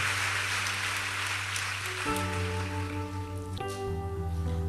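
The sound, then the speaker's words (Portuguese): An audience at a church service applauds in a steady, dense crackle of clapping that carries on throughout, over sustained keyboard chords that shift to new harmonies twice. “Aplauda ele bem forte.”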